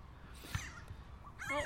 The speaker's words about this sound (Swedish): Må, måsar som kommer allt närmare. Åh oh, gud vad rädd jag blir. Med någon slags ganska, korvbröd tror jag. Ja, det var Ett jättestort. Ett korvbröd i munnen.